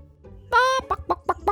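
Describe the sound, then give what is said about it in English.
A hen lets out a loud, drawn-out squawk, then four quick clucks in an even rhythm. No one speaks over it. “A wheat seed! cried the little red hen.”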